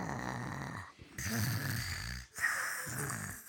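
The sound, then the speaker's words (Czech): Three long, rumbling snores with a raspy, gurgling texture from a large round five-headed creature lying in the middle of a room, heard from the hallway, each separated by a brief quiet gap, loud and steady with no talking. “Už z chodby bylo slyšet prapodivné chrápání.”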